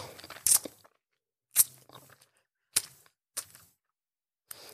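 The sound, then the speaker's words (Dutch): Wet sucking and slurping mouth noises from an adult woman sucking on her thumb to imitate oral sex for a scene in audio stories come in five short, crackly bursts separated by silent pauses, with no talking. “Je zit gewoon een volwassen vrouw tegenover me op de duim te zuigen.”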